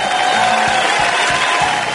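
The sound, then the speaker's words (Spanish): An audience at a Red Mosquito Radio show, asked to wear face masks, applauds steadily as the team is introduced, a dense wash of many hands clapping at once, fairly loud, with faint voices mixed into the crowd noise. “Perdón, aplauso con recaudos, por favor, ¿eh?”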